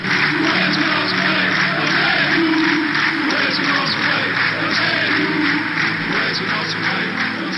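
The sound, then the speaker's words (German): A large crowd chants together with rhythmic clapping for minutes, paying last respects to a dead football legend lying in a coffin in a car; a dense, steady wall of voices and hand claps at constant loudness, with repeated pulses running through the whole stretch. “Und genau das klatschten sie minutenlang, während er da in dem Wagen im Sarg lag und sie gaben ihm die letzte Ehre und das klang dann so.”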